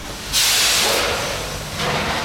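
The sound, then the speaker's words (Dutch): Loud machinery on a factory floor with about 40 machines hisses in two strong bursts of pressurized air, the first long and sustained, the second starting near the end, over a low mechanical rumble with no talking. “En die oordoppen zijn geen overbodige luxe, want dit is het geluid op de werkvloer.”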